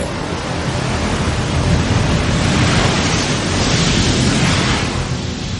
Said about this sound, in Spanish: El cuerpo de Boromir yace en el interior de una barca. Arrastrada por la corriente, cae por una catarata mientras Aragorn le despide desde la orilla.